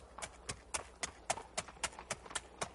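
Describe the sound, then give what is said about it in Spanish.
The hooves of horses ridden by Spaniards clip-clop in a steady, brisk rhythm, about a dozen sharp knocks in under three seconds, clear with no voices over them. “Se espantaron al ver los españoles que venían encima de los caballos, por eso les llamaron Teteu, que quiere decir dioses.”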